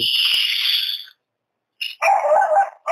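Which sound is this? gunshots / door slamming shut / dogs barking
dogs barking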